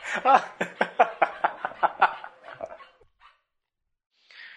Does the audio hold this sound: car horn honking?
no